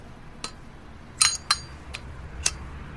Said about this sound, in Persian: برگشتم توی ماشین منتظر نشستم تا اونا برن یه سیگار روشن کردم